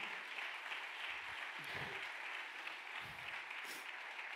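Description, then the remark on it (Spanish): An audience applauds steadily, a dense wash of many hands clapping at an even loudness throughout, with a few low murmurs and voices briefly surfacing beneath the clapping. “Vamos, denle un aplauso.”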